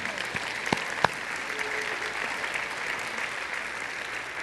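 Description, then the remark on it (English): An audience gives the Lord a hand clap, a steady, dense wash of applause lasting several seconds, with a few sharper individual claps standing out near the start and no speech over it. “Let's give the Lord a hand clap before you stand.”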